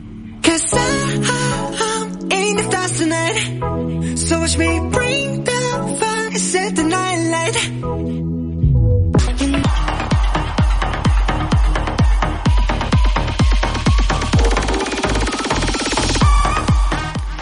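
A bright, upbeat pop song, the number one of the Mix FM Top 10 international hits radio countdown, plays loud and continuously with no talking, shifting partway through from a lighter melodic section into a fuller, driving beat.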